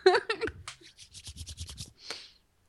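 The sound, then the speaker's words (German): A brief laugh, then hands rubbing briskly together, a quick run of dry, scratchy strokes ending with one last soft swipe. “ich habe Hände gerieben. Ich hab's gehört.”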